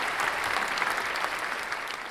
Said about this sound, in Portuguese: Vou até fazer os aplausos aqui para eles, né?